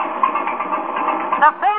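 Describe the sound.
A big fire truck's motor runs with a steady, rough, buzzing drone throughout, after being driven up a driveway, and a brief voice-like sound rises over it near the end.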